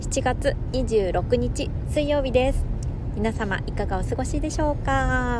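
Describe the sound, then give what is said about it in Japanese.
A steady low rumble of car interior noise, recorded from inside a car, runs beneath the whole recording, constant and fairly strong, while a woman speaks clearly over it into the microphone. “車の中から収録をしているので雑音が入っていると思うんですけれども申し訳ないです”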